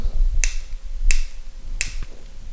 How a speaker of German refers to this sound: Hier mein Feuerzeug ist, glaube ich, leer.